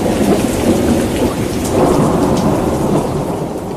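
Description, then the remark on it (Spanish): A great thunderstorm roars steadily while on a ship, heavy rain pouring down with a deep, rumbling thunder underneath, loud and continuous throughout with no voices. “Entonces, Jonás, embarcando hacia otra dirección, desobedeciendo al Señor, y estando en el barco, empieza una gran tormenta.”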